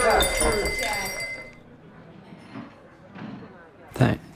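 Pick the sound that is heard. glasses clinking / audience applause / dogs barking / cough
glasses clinking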